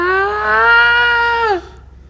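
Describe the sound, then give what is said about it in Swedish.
A single drawn-out, plaintive wailing cry from further down a corridor, loud, holding a steady pitch for about a second and a half before sliding down and breaking off. “Längre ner så tycks det göra det och du hör ett klagande rop.”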